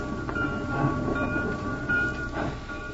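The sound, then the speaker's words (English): A freight train rumbles steadily through the Colfax Railroad Yards at the base of the Sierra Nevada Range after sunset, with a constant low roar, metallic squeals and faint rhythmic clanks of rolling railcars. No one speaks. “I had finally reached the Colfax Railroad Yards at the base of the Sierra Nevada Range.”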